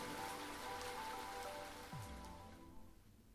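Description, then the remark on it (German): Steady rain patters down in a dense, continuous wash, fairly loud, with a low rumble passing briefly midway before the hiss thins out toward the end. No voices. “Der stärker werdende Regen störte mich nicht.”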